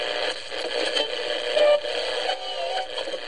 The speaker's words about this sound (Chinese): 在这个午后纯净时光，打开收音机，旋转调频。